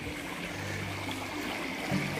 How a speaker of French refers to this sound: Ah, faut que je traverse une rivière.